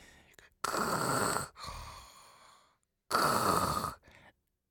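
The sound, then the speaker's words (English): A voice imitates the heavy mechanical respirator breathing of Darth Vader, as voiced by James Earl Jones: two loud, rasping, hissy breaths with a softer exhale between them, with no talking. “James Earl Jones with his Darth Vader breathing apparatus.”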